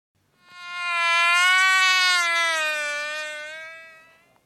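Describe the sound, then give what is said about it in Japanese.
A mosquito's wings buzz in a steady, high-pitched whine that swells in and fades out over a few seconds, fairly loud, with no other sounds around it. “今のは蚊が羽ばたく音ですこの音を聞いて不快に思った人も多いでしょう”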